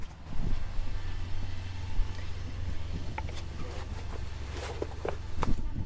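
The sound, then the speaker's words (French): Irregular footsteps crunch across the ground outdoors as a person walks around a parked truck, scattered over several seconds against a steady low rumble and light wind noise; no one speaks. “Je fais le tour du camion et je te rejoins.”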